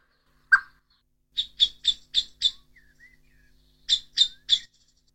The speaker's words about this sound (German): hat jetzt verschiedene Warnrufe der Amsel und stellt sie uns vor